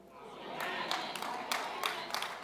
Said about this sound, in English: I'm getting like five or six golf claps. How y'all doing in the room?